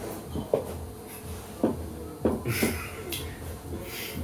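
A door handle is twisted and jiggled several times against a locked door, giving sharp clicks and rattles at irregular intervals while the door stays shut; the people on the other side are locked in.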